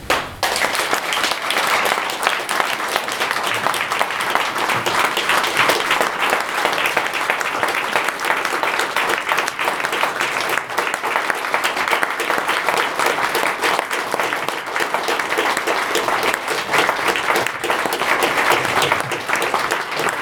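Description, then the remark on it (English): A large audience applauds loudly and steadily for about twenty seconds, the dense clapping staying at full strength throughout without fading. “Clap your hands and tomorrow louder you clap them, to better him hear it.”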